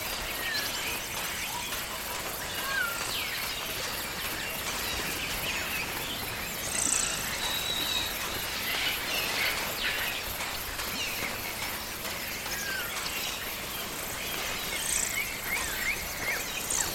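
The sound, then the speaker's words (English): Kuhl's lorikeets call continuously in a busy chorus of shrill, high squeaks and chirps, with several birds overlapping amid a constant insect-like hiss. No one speaks. “what were these birds called? Uh, lorikeets. Kuhl's lorikeets.”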